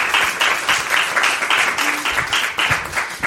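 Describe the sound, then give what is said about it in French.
Steady applause from an audience after a short poetry reading, dense overlapping claps forming a bright, sustained crackle with slight rhythmic swells, moderately loud throughout and with no talking over it. “Euh, franchement, je pense qu'un petit, un petit applaudissement est euh, vérité.”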